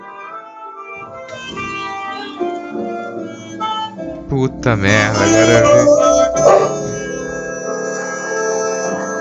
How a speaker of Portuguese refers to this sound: Bom, eu não estou enxergando, mas basicamente deve ser um carro de som tocando essa música maravilhosa, comovente.